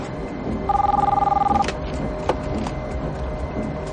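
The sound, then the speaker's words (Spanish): A car phone rings with one warbling electronic trill lasting about a second, clear, over a low steady engine rumble as a woman drives in the rain with the wipers on, then a soft click as she picks up the call. “El teléfono del coche suena y ella descuelga.”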